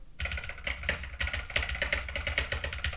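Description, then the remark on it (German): Rapid, continuous clicking of keys on a pink Razer BlackWidow mechanical keyboard, crisp, with dense irregular keystrokes throughout and a low hum underneath. No one speaks. “Alter, nee, so eine geile mechanische Tastatur.”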